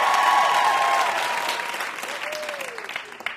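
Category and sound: crowd, studio audience applause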